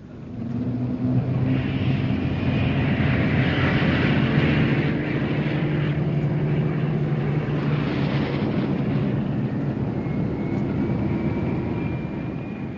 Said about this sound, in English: What a sight! A thousand planes taking off towards Blackpool.